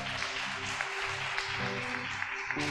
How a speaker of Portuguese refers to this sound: Você pode dar uma salva de palmas ao Senhor Jesus?